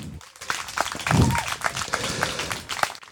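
An audience at a poetry slam in a courtyard breaks into steady applause to show they are ready for the slam, many hands clapping in a dense, sustained patter for a few seconds, with a faint murmur underneath.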